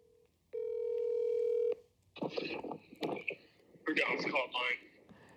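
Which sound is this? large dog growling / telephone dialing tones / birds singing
telephone dialing tones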